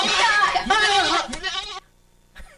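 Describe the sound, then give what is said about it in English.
A person imitates a goat's bleat as a celebration noise, in one loud, quavering cry lasting nearly two seconds, followed by a pause and a brief faint noise. “Uh, that's that's the noise I make now when I celebrate.”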